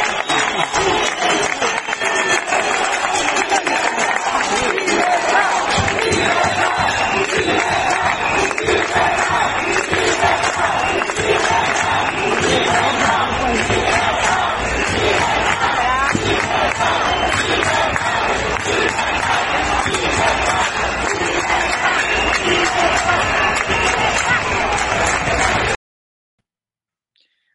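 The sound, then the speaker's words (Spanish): A large crowd of hospitality business owners protests extreme restrictions outside the Consulado de Mar in Palma de Mallorca, aimed at Armengol, chanting and shouting outdoors in a loud, dense roar of many voices with clapping mixed in, sustained for about twenty-five seconds before cutting off abruptly. “la que hay liada en Palma de Mallorca porque los hosteleros no aguantan más”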